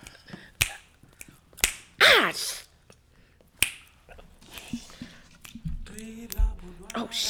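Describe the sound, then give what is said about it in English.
A few crisp finger snaps pop out at uneven intervals, fairly loud, with bits of vocalizing and muffled voices filling the gaps between them. “Oh, you gotta roll and snap.”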